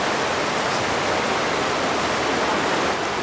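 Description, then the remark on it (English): A steady, roaring rush of river water surges through a narrow notch in a weir about 12 feet high, dense and continuous like a small waterfall, with no voices over it. “Listen to the sound of the river surging through the notch.”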